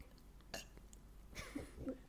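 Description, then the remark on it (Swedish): A small, forced burp rumbles out after a short breathy gulp of air, low and croaky, lasting under a second before trailing off with a faint vocal grunt. “Så här, men, eller bara så här att man sväljer luft och så bara...”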